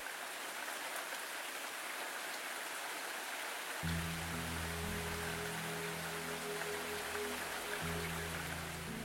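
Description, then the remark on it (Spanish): A steady wash of heavy rain patters against a window, its dense hiss continuous throughout; a few seconds in, low sustained droning tones swell in beneath the downpour. “Miró cómo los gruesos goterones de lluvia trazaban líneas al otro lado del cristal.”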